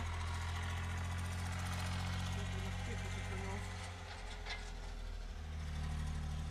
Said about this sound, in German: Man hört so ein bisschen im Hintergrund dann. Die Kartoffelmaschine.